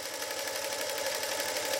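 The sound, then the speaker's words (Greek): A sewing machine runs steadily as a seamstress sews silk fabric, its needle stitching in a fast, even rhythm of rapid clicks over a mechanical whir, moderately loud, with no voices. “Το μεταξωτό ύφασμα καταλήγει σε μια ραπτομηχανή από πάνω της σκυμμένη η Όλγα, επάγγελμα μοδίστρα.”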